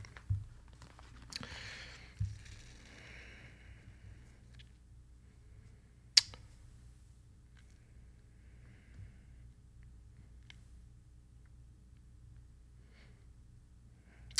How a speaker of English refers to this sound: But bear with me here as you hear my Bible pages turning.